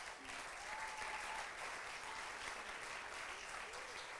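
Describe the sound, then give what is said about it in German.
An audience applauds the name that stands above all names, a steady, dense crackle of many hands clapping at an even loudness throughout, with faint voices and a few cheers mixed into the wash of sound. “Ja, lass uns mal einen Applaus geben, diesen Namen.”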